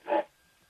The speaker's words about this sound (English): You can hear them in the background. Yeah, uh, right on cue that dog.